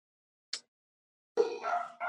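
Dogs bark in a brief outburst: a short, sharp yip first, then a pause and a couple of loud, drawn-out barks close by, with no one talking.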